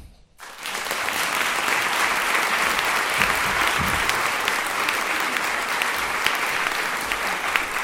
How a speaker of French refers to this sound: Je vous prie d'applaudir très très fort